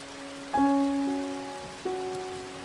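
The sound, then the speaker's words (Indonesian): Steady rain patters softly in a continuous hiss while two sustained instrumental notes ring out over it, one near the start and another a little over a second later. “Riuhnya derai hujan yang berpadu kemuruh rindu mendadak sendu saat ku mengingatmu.”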